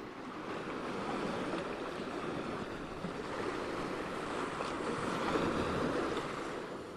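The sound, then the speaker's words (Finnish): Steady sea surf washes onto a shore in a continuous, rushing hiss, with gentle swells rising and falling in volume; no voices, just the broad roar of waves. “Tämä tarina päättyy nyt tähän, uuttoon aaltoihin ja meren rantaan.”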